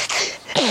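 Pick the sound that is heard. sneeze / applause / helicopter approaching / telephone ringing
sneeze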